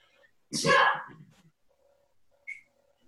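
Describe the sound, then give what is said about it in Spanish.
A single loud sneeze bursts out with a sharp breathy explosion, then fades into near silence with only a faint short sound afterward. “Salud.”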